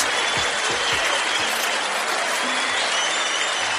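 Loud, steady applause from an audience at Red Rock Studios in Los Angeles, California, for the hosts of The Shiznit, a dense wash of clapping that holds at a constant level for several seconds with no talking over it.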